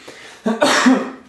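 A single loud sneeze: a short sharp intake followed by an explosive, noisy burst that trails off quickly. No one speaks.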